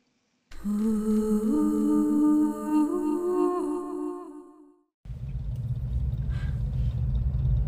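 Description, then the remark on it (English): The engines of a motorcycle group waiting for a river ferry rev loudly, their pitch rising and falling for several seconds, then give way to a steady, heavy low rumble of idling engines. “The sound that you hear are the engines revving of the the uh, motorcycle group.”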